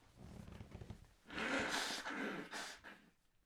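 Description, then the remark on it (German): A nose being blown, two or three forceful, hissing bursts lasting about a second and a half, following a quiet moment with some low shuffling; no talking. “Entschuldigung, ich muss kurz Nase putzen.”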